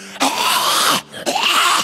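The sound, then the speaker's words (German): A voice imitates a wolf-like snarl, mimicking a man who started foaming at the mouth and opening his mouth wide while being prayed for: two harsh, raspy, growling bursts, each under a second long, loud and noisy with a gritty, breathy texture and a short pause between them. “Und dann plötzlich fängt der an, aus dem Mund zu schäumen und wie, ein, wie so ein Wolf zu machen, seinen Mund aufzureißen.”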